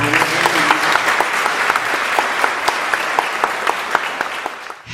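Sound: audience applause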